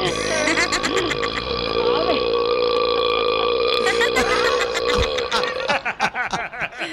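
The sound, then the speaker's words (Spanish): A recorded burp of a child during breastfeeding, recorded by the father: long, loud and drawn-out with a croaking, tonal quality lasting several seconds, breaking into a few choppy gurgles at the end. “Oye, mamá, aquí tenemos grabado un erupto cuando tú me amamantabas a los 10 años.”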